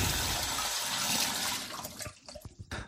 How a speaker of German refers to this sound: Einmal kurz die Pfoten waschen.